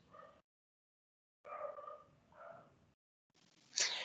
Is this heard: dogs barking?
yes